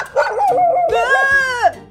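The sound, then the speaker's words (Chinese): A small dog barks fiercely: a quick, wavering run of yappy barks, then one long, drawn-out high bark that dips in pitch at the end. It is loud, with no other sounds. “但走没多久，居然有一只很凶很凶的小狗冲出来”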